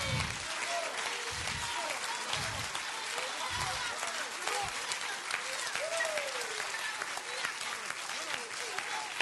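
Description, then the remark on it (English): Steady, dense applause from a large audience fills the whole stretch, a continuous loud clatter of many hands with a few low thumps and faint voices mixed underneath. “Yo, if you stand and clap, I get worse.”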